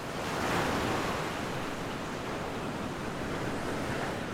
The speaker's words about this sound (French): Peut-être même que toi, sur ta serviette, tu as construit comme un barrage de sable pour empêcher la mer de remonter trop haut tu sens un clapotis lorsqu'elle atteint cette barrière.